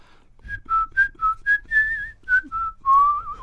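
Someone whistles a short tune: a run of clear, bouncy notes in steady rhythm, finishing on a longer, wavering held note. No talking.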